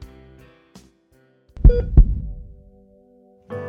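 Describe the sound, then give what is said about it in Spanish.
A single heartbeat sound effect, a deep, booming lub-dub pair of thumps that fades into a low rumble, preceded by a faint sustained tonal drone. “Sus últimos latidos fueron en la guardia de un hospital.”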